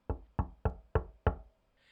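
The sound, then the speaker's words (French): Five firm knocks on a wooden door in a steady, evenly spaced rhythm, clear, followed by a faint soft rustle at the end. “Quelqu'un toqua à la porte.”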